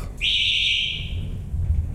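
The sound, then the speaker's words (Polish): A single bright elevator chime rings out and slowly fades over about a second, over a steady low rumble of machinery and the elevator's ventilation fan, during an elevator ride down to a courtyard. “dzwonek.”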